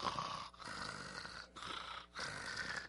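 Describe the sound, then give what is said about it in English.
Someone imitates his own night-time snoring, from being unable to breathe through his nose, with a run of rough, raspy breaths, broken by a few brief pauses. It is fairly loud, with no talking. “At night, I'd sleep, and Michelle's like, "Man, you snore."”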